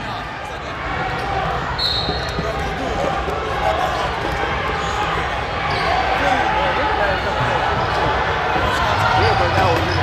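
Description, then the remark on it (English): Steady roar of a basketball game, with a crowd murmuring and squeaks over repeated ball bounces, busy and fairly loud throughout without a clear voice up front. “Y'all want to listen to the game?”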